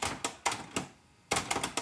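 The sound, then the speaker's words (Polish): A tape deck's mechanism clicks after stop is pressed, as if it were also calibrating the tape before switching off: four sharp mechanical clicks spaced apart, a brief pause, then a quicker cluster of clicks. Fairly loud, with no voices. “Ale jak robię stop, to”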